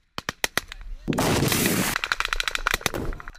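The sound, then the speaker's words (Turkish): Rapid bursts of gunfire crack out in sharp, repeated shots as Hamas members open fire on Israeli forces near the Gaza border, in footage of an attack on soldiers gathered at the Erez border crossing, with a dense roaring stretch of sustained fire in the middle, then more scattered loud pops following. “İsrail güçlerine ateş açtı.”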